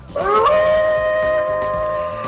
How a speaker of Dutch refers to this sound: Goedemorgen, zo kennen we hem allemaal. De wolf die huilt in het bos.